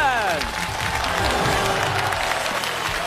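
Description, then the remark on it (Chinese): A studio audience of about a hundred people applauds on the Chinese TV program Family Open Class (家庭公开课), in a dense, steady wash of clapping that holds at an even loudness throughout, with a few voices and a brief falling tone mixed in at the start. “谢谢你们为宋小宝和宋仲基鼓的掌哈。”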